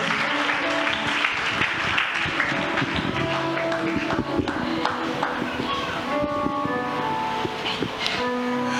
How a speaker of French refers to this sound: Applaudis très fort pour l'intelligente décision que vous avez apprise, vous avez pris ce soir, cet après-midi.